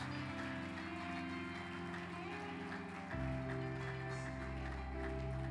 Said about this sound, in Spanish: Dele ese aplauso a Él. Aleluya. Dele ese aplauso fuerte a Él. Gracias Jesús.